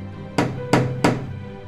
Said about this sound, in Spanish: No pasa ni un suspiro cuando tres aldabalazos suenan en la puerta de entrada.